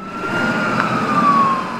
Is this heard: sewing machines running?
no